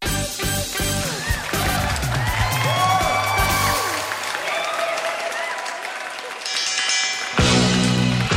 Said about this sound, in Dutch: Ja, je hoorde de bel van de laatste ronde. die gaan we ook spelen, de ronde Grabbelton.